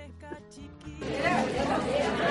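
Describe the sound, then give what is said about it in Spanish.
A dense wash of crowd chatter fills a busy, crowded live venue in San Miguel, many overlapping voices swelling in after a brief quieter moment, loud with no single voice standing out. “con el sonido, porque bueno, era un lugar donde había mucha gente y el móvil en vivo tiene esto, ¿viste?”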